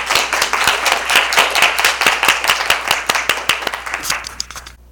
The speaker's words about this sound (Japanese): はいじゃあ皆さん拍手しましょうありがとうございました